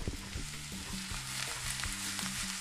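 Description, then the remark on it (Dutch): Oyster mushroom strips fry steadily in hot olive oil in a pan on a stove, a continuous crackling hiss with a few clinks and scrapes of stirring, with no one speaking. “Olijfolie, fornuis aan en olijfolie in de pan. Dan gaan we dat lekker bakken.”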